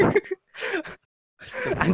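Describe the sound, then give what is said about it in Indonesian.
Loud, breathy bursts of air right up against the microphone, three rough exhalations with short silent gaps between them, the last one longest and harshest. “kalau nafas jangan deket mik.”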